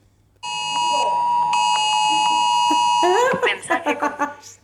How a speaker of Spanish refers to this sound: Seguramente que ese sonidito sí que lo has sí, podido sí, escuchar. Sí, claro ¿Te recuerda algo? Me recuerda, recuerdos de Vietnam. Sí, recuerdos de Vietnam. Bueno, esto fue la alarma de emergencias que lanzó la Comunidad de Madrid